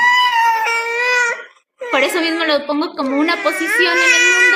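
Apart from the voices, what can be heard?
baby crying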